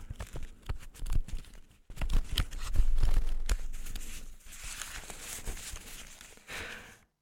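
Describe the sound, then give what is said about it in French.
Rustling and crumpling of paper sheets, with irregular crackling bursts that swell and settle over several seconds, fairly loud and with no voices. “Ce sont des papiers.”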